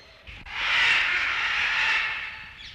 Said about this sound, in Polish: Poza tym słyszymy głosy papug.